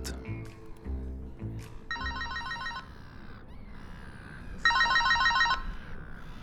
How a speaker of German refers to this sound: Als er gerade auf das Bänkchen sitzen läutet das Diensthandy den ihm den Rüeg aufgezwungen hat.